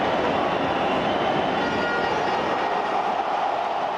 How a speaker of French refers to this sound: Et soudain, et Bimpe jubile. 50 000 supporters debout après avoir déjà passé une bonne partie du match à chanter. Cette fois, le public crie. Il hurle sa joie de voir ses éléphants